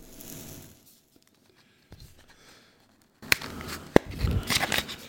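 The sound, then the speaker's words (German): Crinkling and tearing of a Marlboro cigarette pack being opened, starting with faint rustles, then a sharp snap and a burst of loud crackling cellophane and paper, with no talking. “Wir können jetzt eben einen ASMR davon machen, wie man eine malboro schachtel aufmacht.”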